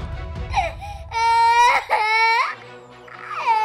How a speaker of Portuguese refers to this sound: Os berros do garoto trouxeram o homem de volta à realidade.